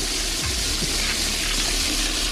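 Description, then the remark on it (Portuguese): A toilet flushing: a steady, loud rush of water that fills the whole moment, unbroken, with no voices. “A Bia aqui, isso é descarga”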